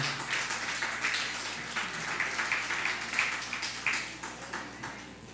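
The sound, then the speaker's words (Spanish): Sustained audience applause, a dense crackle of many hands clapping steadily at moderate loudness for several seconds, with no one speaking over it. “El otro extremo, dale fuerte aplauso.”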